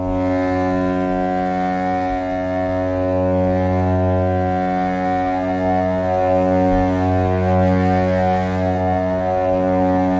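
A sustained ambient drone of layered, steady tones hums continuously at a loud, even level, with subtle shifting textures and slow swells drifting through the held chords.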